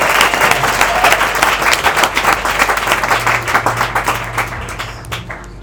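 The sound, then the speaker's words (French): An audience bursts into dense, sustained applause, many hands clapping at once in a loud, steady wash that gradually thins and fades over the last second. “Donc si tu es faible, il faut acclamer pour toi.”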